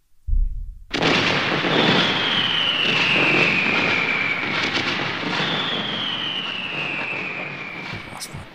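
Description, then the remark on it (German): A sudden loud boom goes off at the house, followed by a long, steady roaring hiss with a high whine that slowly falls in pitch, lasting several seconds. It is not an ordinary firecracker but something else. “das für ein Böller? Das ist kein Böller. Das ist was anderes.”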